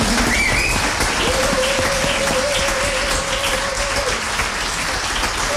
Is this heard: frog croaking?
no